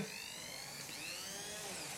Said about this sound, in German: Gläser Bärlauch, ein bisschen Öl, Preisensalz ist jetzt in dem Becher drin. Ich habe hier einen Stabmixer.